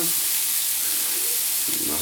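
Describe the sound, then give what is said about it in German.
Fat left over from frying meat portions sizzles steadily in a frying pan, a dense, crackling hiss that stays loud throughout, with a faint low murmur underneath and a slight shift in tone near the end. “Jetzt habe ich hier noch das Fett in der, Fett in der Pfanne”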